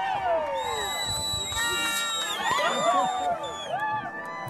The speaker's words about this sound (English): There are bluebird skies and a film crew and a crowd waiting for him, high fives, cheering, and he pops the cork on a bottle of champagne.